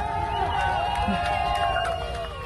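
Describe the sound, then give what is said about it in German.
A large crowd of bystanders cheering and whooping at Yevgeny Prigozhin as he leaves the army's Southern Military District headquarters in a black SUV. Many overlapping voices rise and waver in pitch over a steady, loud roar that carries through the whole moment. “warum johlen und jubeln die Leute?”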